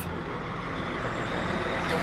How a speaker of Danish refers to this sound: Du er i Ukraine på vej mod øh, Lviv i en bil.